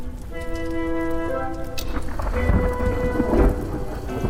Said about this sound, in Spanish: Vaya truenaco que se ha oído de fondo. Parece que se está acercando ya fuerte la tormenta.